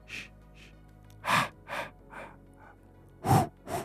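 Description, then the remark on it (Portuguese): A voice imitates the eerie breathing sound from the horror film Halloween, tied to the film's killer: about eight breathy rasps in an uneven rhythm of in-and-out pulses, some louder than others, with no talking. “Porque você tem um som que não existe, a gente não sabe exatamente o que é, é aquele shh, shh,”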